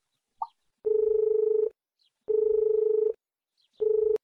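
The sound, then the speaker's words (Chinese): A mobile phone ringback tone sounds in three steady, mid-pitched buzzing bursts, each under a second long with short silences between, preceded by a faint brief click. “易星轻轻的抚摸着他的头，然后掏出了手机。”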